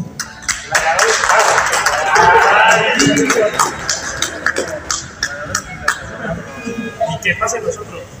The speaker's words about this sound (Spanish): Pues bueno, despedimos aquí a nuestro gladiador. Muchísimas gracias. Pues bueno, un aplauso por favor.